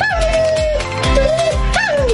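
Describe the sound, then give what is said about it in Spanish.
A dog howls in long, wavering tones that rise and fall, breaking into short whimpers and whines, fairly loud, with a steady low rumble running underneath. “¡Te habla tu mejor amigo! Creo que te quiere decir algo.”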